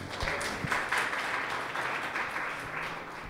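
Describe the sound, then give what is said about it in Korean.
A crowd applauds a fan who is being thanked, a steady, dense wash of many hands clapping at an even loudness for a few seconds, with no one speaking over it. “진짜 고마운 분이죠. 박수 한 번 쳐주세요.”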